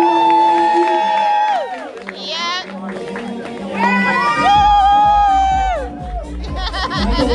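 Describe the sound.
A loud crowd cheers and shouts for a model walking at a show in Kansas City, with high whoops and yells rising over a dense roar of many voices, swelling midway and staying strong to the end.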